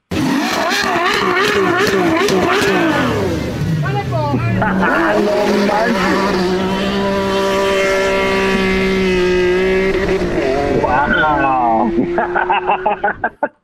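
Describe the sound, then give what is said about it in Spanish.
A car engine, after half of a small bottle of something is put in it, cranks and catches, then revs up and down loudly for several seconds before settling, with people talking over it and a rapid ticking toward the end. “Mira, vamos a ponerle la mitad del frasquito para que veas cómo va a arrancar tu, tu carro.”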